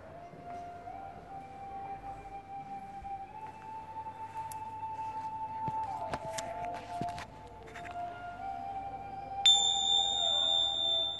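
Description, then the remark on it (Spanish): Meditation bells ring out during a mindfulness meditation, their long sustained tones overlapping and wavering, with a few soft strikes and a bright, higher bell struck clearly near the end. “Siente como el sonido de las campanas entra dentro de ti.”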